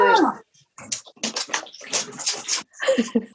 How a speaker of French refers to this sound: Elle pulvérise son chat.